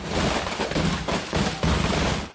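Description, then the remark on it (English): A dense barrage of fireworks from an ignited truckload in a neighborhood, bursting in rapid succession, loud crackling and popping explosions overlapping continuously with no pause, rockets flying in every direction. “A truckload of fireworks ignites. The neighborhood becomes a war zone with rockets flying in every direction.”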